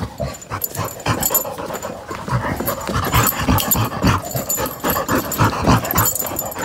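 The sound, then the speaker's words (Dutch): A dog makes a panting laugh, quick breathy huffs in a steady, rapid rhythm, fairly loud, with no talking throughout. “Dit is een, een hond die lacht.”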